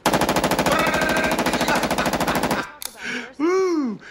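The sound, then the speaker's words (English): A long, loud burst of automatic fire from a Steyr AUG rifle, made in Austria: rapid shots in a steady rhythm for about two and a half seconds, then it stops and a man's voice briefly speaks. “Now this here is a Steyr AUG.”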